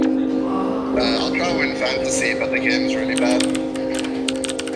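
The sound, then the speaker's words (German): Rapid keyboard typing, a quick run of sharp clicks, by skilled specialists in a darkened data unit where game data is processed, lit only by displays, with soft voices murmuring and a steady electrical hum filling the room. “Die begehrten Fachkräfte bearbeiten die Tastaturen.”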